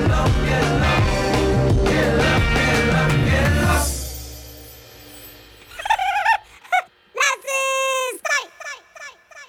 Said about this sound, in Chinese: 然后把它变音，调高八度后，就变得很像电玩声的那种声响。